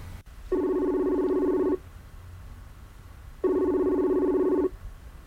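Two long, steady electronic ring tones separated by a pause of about two seconds, each a bright buzzing trill at constant loudness: a telephone ringing on the other end of a line before the call is answered. No voices.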